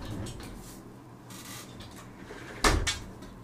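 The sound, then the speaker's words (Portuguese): A door or cupboard shuts with a sharp thud and a brief rattle just after, following a few seconds of quiet shuffling and handling noise. “Deixa eu fechar aqui, porque senão daqui a pouco um gato aparece, né?”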